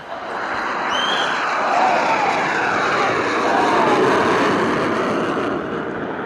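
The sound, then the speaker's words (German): Two Russian fighter jets roar low over Tbilisi, Georgia, in August 2008, a loud, dense rumbling roar that swells and holds steady for several seconds, with faint sweeping engine tones and no voices. “Im Tiefflug donnerten zwei russische Düsenjäger über die Stadt.”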